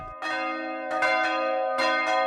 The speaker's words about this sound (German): Die Glocken der Stephanuskirche in Übisfelde, Weverlingen, Hörsingen sind schon zu hören. Drei eher kleinere, zwischen 200 und 400 Kilo schwer.